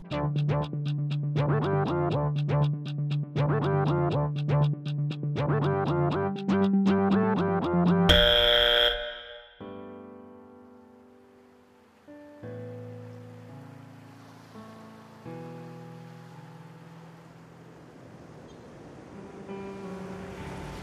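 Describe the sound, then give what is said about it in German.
The intro of a pop song, the title song of a singer's album, with steady pulsing keyboard chords, then a sudden crashing swell like a breaking wave, settling into softer sustained tones and gentle wash. No voices. “Ja, wir hören noch einen Song von ihm, und zwar den Titelsong seines Albums.”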